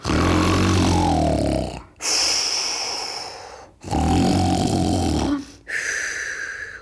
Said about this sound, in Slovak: Tu sa spod vysokého stromu ozýval taký chrapot, ako keby tú horu pílil.